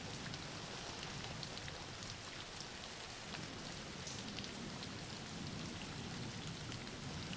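Steady rain falling on a surface, a dense, even hiss with faint scattered drop taps throughout, constant and soft with no voices.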